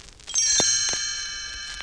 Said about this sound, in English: It's that time again to read together. You will know it is time to turn the page when you hear the chimes ring like this.